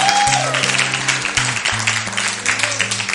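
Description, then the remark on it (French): A crowd applauds Jesus, clapping steadily for a few seconds, a dense crackling wash of many hands, while sustained low musical chords hold and shift underneath. “On applaudit Jésus.”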